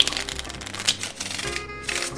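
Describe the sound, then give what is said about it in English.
A deck of playing cards being shuffled, a dense papery riffle of rapid flicking cards lasting a couple of seconds with no voices. “I know back a pack like the back of my pack. Excellent. Then I'll shuffle.”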